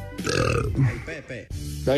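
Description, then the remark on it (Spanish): A loud burp-like belch, drawn out and voiced with a low, grunting tone, stretching for about two seconds in a couple of gurgling pushes. “Como que eructando, no.”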